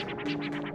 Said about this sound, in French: ce genre de scratch, ce genre de swag, tu connais.